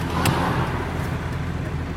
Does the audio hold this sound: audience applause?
no